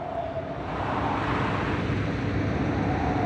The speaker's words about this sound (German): Ein Auto kam angefahren.